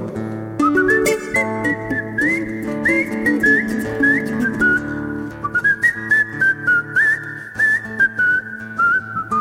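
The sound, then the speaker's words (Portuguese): A person whistles a lively melody at an event, bright sliding notes with quick trills, over a steady instrumental accompaniment that continues underneath throughout. “Eu, eu só vou dizer uma coisa que é realmente que assobio, né?”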